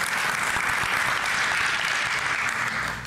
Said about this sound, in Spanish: le puedes dar un aplauso a Dios si quieres.